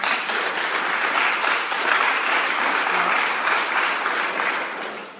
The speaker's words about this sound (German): Applaus